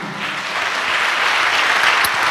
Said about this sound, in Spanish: Dale un aplauso a Dios, hermano.